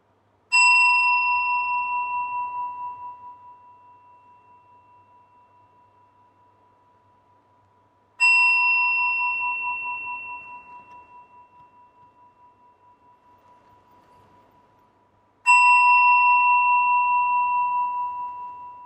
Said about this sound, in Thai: ฟังโดยที่ให้ใจเราเนี่ยจดจ่ออยู่กับเสียงระฆังนะ แล้วเมื่อไหร่ที่เรารับรู้ว่าเสียงระฆังมันเงียบหายไป ให้ยกมือขึ้น ให้ใจเราโฟกัสจดจ่ออยู่กับเสียงระฆังนะอะทดลองดูนะ ไม่รู้เสียงระฆังผ่านไมผ่านระบบซูมมันจะเป็นยังไงนะโยมนะอะลองดู